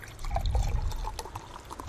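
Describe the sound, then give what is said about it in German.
Cider pours steadily from a small bottle, a continuous splashing stream with bright bubbly fizz and gurgles throughout, no talking. “Das klingt so ein bisschen, als würde jemand pissen, aber nee, es ist eine, ein, äh, ein Fläschchen Cider.”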